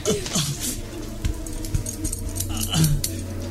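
Scissors snip and clink close by, cutting through bindings in quick, uneven metallic bursts, with brief murmured voices and faint rustling underneath.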